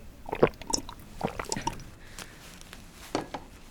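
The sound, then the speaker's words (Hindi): Someone drinks water, with a few soft, wet gulps and swallowing sounds coming in uneven bursts against a quiet background. “दी शांत हो जाइए इतना गुस्सा मत करिए लीजिए पानी पीजिए”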